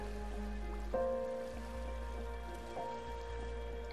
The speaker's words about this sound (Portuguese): Aqui você inspira e expira, sentindo a brisa fresca tocar no seu rosto e ouvindo o som reconfortante desse riacho.